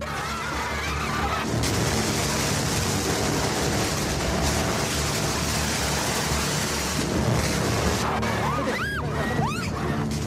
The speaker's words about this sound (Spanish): Eso es un cañón de agua disparando a unos manifestantes.